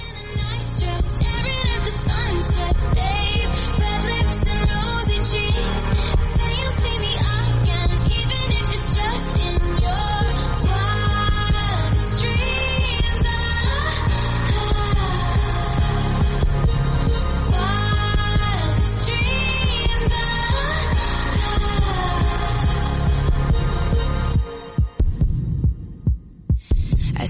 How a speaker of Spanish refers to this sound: mientras llega … con esta rola